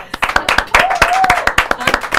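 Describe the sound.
An audience claps for an activist who is called to the front, in a quick, uneven patter of sharp, bright hand claps lasting about two seconds, with a faint voice rising briefly in the background.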